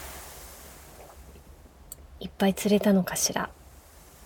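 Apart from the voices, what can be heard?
ocean waves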